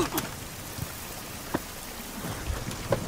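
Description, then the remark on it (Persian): Steady rain falls in a continuous soft hiss, with a few sharper drips or taps standing out now and then. No one speaks. “یه دیالوگ داره فروتن اونجا که اون پسر تندروی تند مزاج میزندش و اینها بر بلند میشه زیر بارون بر میگرده میگه که میکشی بکش ولی تحقیر نکن”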